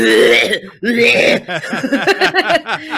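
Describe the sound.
A person voices two harsh, raspy cough-like bursts, imitating someone's rough cough in the background of a video, then carries on talking in a lively, slightly laughing tone.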